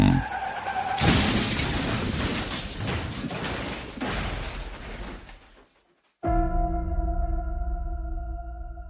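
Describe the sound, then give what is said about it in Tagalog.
A loud crash erupts suddenly as a 10-wheeler truck hits a rider without a helmet, throwing them into the air to land at the edge of a ravine: a few seconds of skidding, grinding and shattering glass, then brief silence before a steady high ringing tone takes over. “Binangga ako ng 10-wheeler truck at tumilapon ako sa ere at bumagsak sa gilid ng bangin.”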